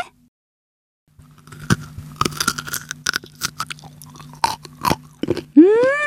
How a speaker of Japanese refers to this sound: それでは朝採れたての人参を試食してみますね